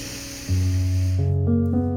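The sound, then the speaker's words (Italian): A soft, airy inhale through the nose during a breathing exercise lasts about a second, its breathy hiss sitting under calm, sustained synth chords that swell in and shift pitch. “3-4 secondi e ripetiamo l'ultima respirazione con questa modalità inspiro naso”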